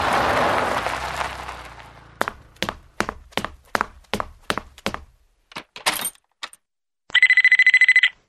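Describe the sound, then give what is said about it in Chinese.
A telephone rings before an answering machine picks up: a hiss, then a steady run of sharp mechanical clicks, a few scattered clacks, and one loud, buzzy electronic ring tone lasting about a second. “亲爱的，找不到你就只好在答录机留言，希望你可以听到。”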